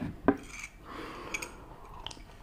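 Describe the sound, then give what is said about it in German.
Ceramic coffee cups clink together in a morning coffee toast: one bright clink followed by a couple of lighter taps and small tableware sounds, otherwise quiet. “Zum Wohl und Prost Kaffee.”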